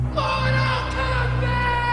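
A single loud, drawn-out shout of "Mortal Kombat!" taken from a TV commercial for the Mortal Kombat game, pitch-shifted to a deep, processed tone, held steadily for about two seconds with no other sounds around it.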